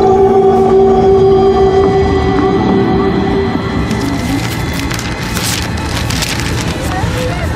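A steady, loud rumble of a train rolling along the rails, with clattering and creaking throughout and a sustained tonal hum early on.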